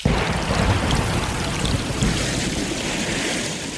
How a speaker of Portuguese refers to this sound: Um grande trovão e começou a chover. Aquela chuva que começou um pouco tímida se tornou de repente uma chuva daquelas de inundar mesmo, de formar grandes correntezas.